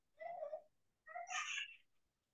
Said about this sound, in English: Not only am I in New York City, but I do have uh, seven month old daughter. So you might hear her in the background as well.